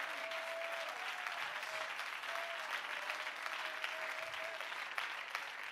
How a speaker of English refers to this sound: Come on, somebody clap your hands unto the Lord and give him praise.